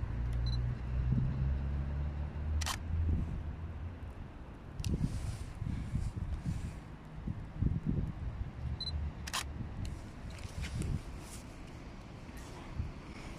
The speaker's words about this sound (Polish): Czekał ten samochodzik na mnie. I teraz niniejszym zrobię zdjęcie.